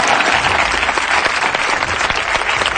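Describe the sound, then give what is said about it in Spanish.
A studio audience applauds steadily, a dense wash of clapping hands that stays loud and even from start to finish with no voices over it. “Aplaudan esto, festejenlo.”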